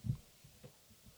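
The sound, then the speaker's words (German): A mobile phone buzzes in a series of short, low, muffled vibration pulses, the first strongest and the rest fainter, with no one talking. “Okay, das war mein Handy, sorry.”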